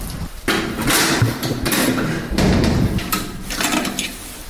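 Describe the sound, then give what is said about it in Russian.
A key grinds and turns in the lock of a blue iron door of a disciplinary isolation unit, opening onto its exercise yard, producing several sharp metallic clunks and scrapes in quick succession, fairly loud, with no one speaking. “Ключ в замке провернулся, и мы попали в такой дворик.”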